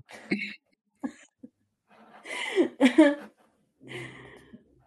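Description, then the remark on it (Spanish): A person sneezes several times, with two quick small bursts first, then a louder, drawn-out sneeze with a sharp gasp, and a final softer one after a pause. “Entonces voy a volver a estornudar y me tengo que ir.”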